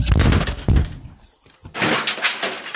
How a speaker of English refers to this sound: Why are they knocking? They're still knocking.